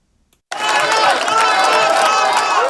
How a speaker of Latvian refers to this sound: Reformu partijas biedri vakar vakarā ar ovācijām sagaidīja vēlēšanu rezultātus.